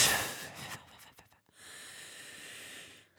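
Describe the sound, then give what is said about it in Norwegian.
Heavy, airy breathing right up against the microphone: a strong exhale, a short pause, then a longer steady breath with a hissy, snort-like edge. No talking. “Ja, men du må skjønne at det, det, er ikke lyd, det er pusten også.”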